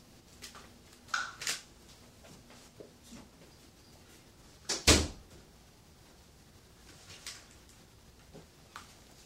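A door is pushed shut with a single solid thud, preceded by a few soft clicks and rattles of handling, in otherwise quiet surroundings with no talking.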